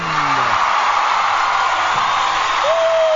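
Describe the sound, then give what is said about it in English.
A studio audience in Los Angeles applauds and cheers to welcome Amber Lynn, a steady, loud wash of clapping with a few whoops and a rising whistle-like shout near the end. “Let's give a big round of applause and welcome to the lovely, legendary Miss Amber Lynn.”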